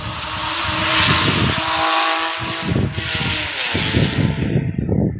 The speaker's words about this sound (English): as motorcycles go by